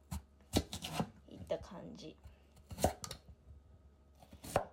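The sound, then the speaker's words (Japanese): A knife chops vegetables on a cutting board in a few sharp knocks spaced irregularly, while a person speaks softly between the cuts. “小口切りだし、ハムもま短冊に切ってね、玉ねぎがあればまあスライスしてるんだけど今日はないんであの刻んだ長ネギを入れるかもしくはフライドオニオンをふりふりとふりかけるからっきょうがあればらっきょう刻んで入れると”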